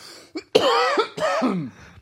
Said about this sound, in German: Nee, ich muss husten und wollte gerade meinen Mute-Button.